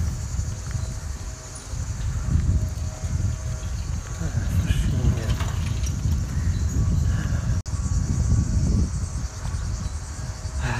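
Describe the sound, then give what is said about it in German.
A steady, low rumble of road traffic from the main road running out of and around the town behind the city wall fills the background throughout, with a continuous high chirring of crickets layered on top and faint murmurs of voices, in a shady spot under trees. “Man hört das Rauschen vom Verkehr ja.”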